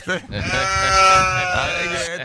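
A single drawn-out goat bleat, loud, with a wavering, nasal tone that holds for about two seconds before cutting off.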